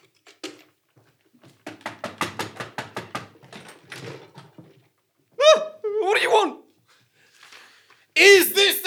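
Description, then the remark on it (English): A quick, steady run of about eight or nine sharp knocks on a door, followed after a pause by voices speaking. “I started my recorder and knocked on the door marked Unseen Hour”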